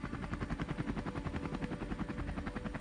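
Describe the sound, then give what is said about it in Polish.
Steady rhythmic thumping of helicopter rotor blades, a fast continuous chop with a low engine drone beneath it, loud throughout with no voices. “I widziałeś od oddali jeszcze dwa helikoptery, które wiozły te baraki, które znajdowały się w Blackwater Creek.”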